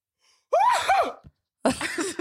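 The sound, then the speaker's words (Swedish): A person loudly imitates the way their maternal grandfather sneezes, with a vocal wind-up and a forceful burst, then a short pause and a second strained, shouted sneeze-like outburst, alone. “Medan min morfar nyser så här.”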